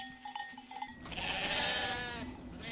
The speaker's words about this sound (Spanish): Y la polvareda que había visto la levantaban dos grandes manadas de ovejas y carneros, que por aquel mismo camino, de dos diferentes partes venían, las cuales, con el polvo, no se echaron de ver hasta que llegaron cerca.